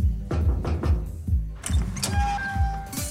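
A steady series of five or six firm knocks by the goddess of the hunt on a temple door, then a rattle and a squeaking creak as the god Dionysos pulls the door open, fairly loud, with no voices.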